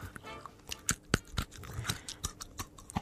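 Teeth crunch hard candy, a quick irregular series of sharp cracks and crackles, about ten bites in three seconds, with no talking over them.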